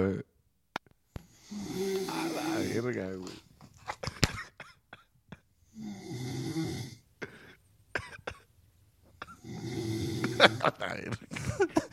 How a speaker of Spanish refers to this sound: Entonces, la primera noche no me dejaron dormir los ronquidos